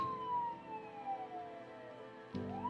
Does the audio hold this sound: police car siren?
yes